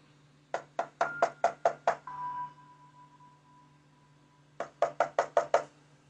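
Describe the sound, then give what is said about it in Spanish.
Two quick runs of firm knocking on an apartment door at about 4 in the morning, about seven evenly spaced raps each, separated by a few seconds of pause with a faint steady tone and low hum underneath. “Se escuchó que varias veces tocaron la puerta del departamento.”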